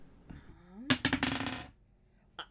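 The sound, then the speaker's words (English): Dice clatter across a hard tabletop in a quick cluster of sharp clicks that settle after under a second, followed by one more faint tap; moderately loud, with no talking. The dice are rolled to hit during a tabletop game. “I this dice can it's not critting for me if I was but it keeps rolling me 19s.”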